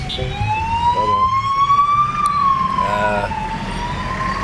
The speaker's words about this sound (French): Oh, est-ce qu'il y a un tapis rouge ici? Non, c'est une ambulance.